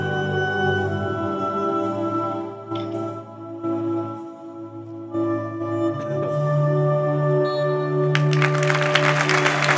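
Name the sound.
stadium crowd applause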